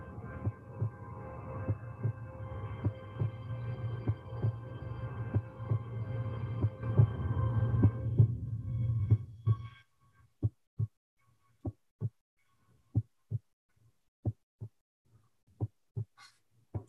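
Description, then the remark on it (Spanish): A steady heartbeat thumps at a slow, even pace, first beneath a low droning hum, then alone and crisp once the hum cuts out around ten seconds in. “Están hasta los latidos ambientando, mira.”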